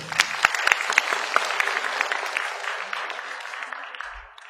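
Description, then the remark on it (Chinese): Sustained warm applause from an audience welcoming Zhou Chenggang, executive president of New Oriental Education & Technology Group, to give a speech. Dense overlapping clapping with a few sharper claps standing out early, holding steady then gradually thinning and fading toward the end. “我们用热烈掌声欢迎新东方教育科技集团执行总裁周成刚老师给我们致辞。”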